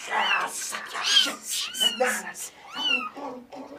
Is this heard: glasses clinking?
no